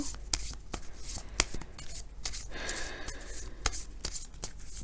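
Tarot cards being shuffled for a Scorpio advice reading in a steady run of soft riffling and papery slaps, with sharper snaps every second or so standing out above the continuous rustle. No one speaks.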